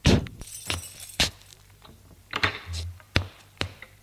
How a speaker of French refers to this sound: Il y monte. L'appartement se trouve sous les toits. En ouvrant la porte,